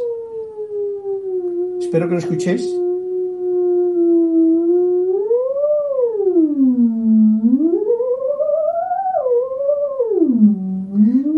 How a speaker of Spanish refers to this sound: Entonces es un, yo le doy al potenciómetro que tiene aquí, ¿veis? Un potenciómetro y tal, y emite una onda, pero es muy mágico, porque, vamos a ver así, ¿veis?